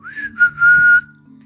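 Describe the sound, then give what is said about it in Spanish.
Someone whistles a soft, gentle tune: a rising note, a short break, then a long steady held tone that fades out, with a faint low hum underneath. “porque después de lo que les contaré, nunca más la abrió me amacaba silbando bajito.”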